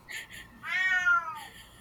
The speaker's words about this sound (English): My cat is doing her warbling. It's very cute.